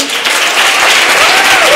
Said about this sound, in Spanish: Yo no quisiera acabar esta, eh, esta reunión sin antes darle un aplauso a los chavos.